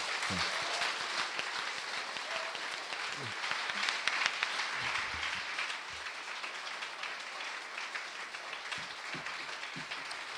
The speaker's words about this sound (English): You need your own talk show. Yeah. You've, you've, built up that applause over a long period of time.